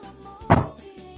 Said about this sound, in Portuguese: Escutou a porta fechando. Né? Não, é que foi meu filho que bateu a porta. Ele tem essa mania de bater a porta quando sai,